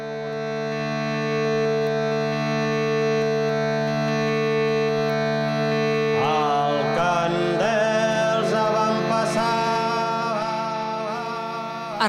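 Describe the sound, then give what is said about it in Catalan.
A steady, buzzing drone with rich stacked harmonics plays continuously and sounds almost synthetic, like a hurdy-gurdy, in a piece that is a threshing song; about halfway through, wavering melodic notes rise over the drone. No voices are heard. “aquest so que sentim que pot semblar tan sintètic, el fas amb una viola de roda?”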